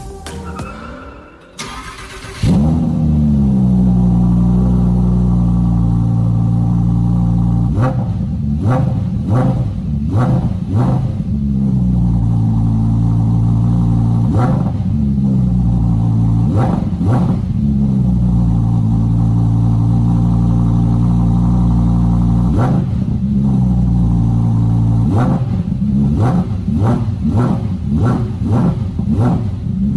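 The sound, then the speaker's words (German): A red Audi R8 supercar engine starts with a crank and catch, then idles with a deep rumble before being revved several times in sharp, rising bursts, held back by a soft limiter, that fall back to a steady burble, loud. “Und äh, das Auto, um das es heute geht, das klingt so.”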